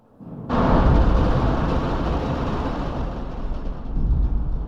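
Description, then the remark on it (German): A sudden, loud, sustained rumbling roar with a rattling, clattering texture: metal balls tumbling down a thunder shaft box, striking metal lamellae inside and thrown from wall to wall to imitate thunder; it rolls on steadily for several seconds with no voices. “Die Kugeln fallen natürlich nicht im geraden Fall nach unten, sondern es sind Metalllamellen in diesem Kasten und die knallen gegen diese Lamellen und werden von Schacht zu Schachtwand geworfen. Und dadurch gibt es diesen Donner-Effekt.”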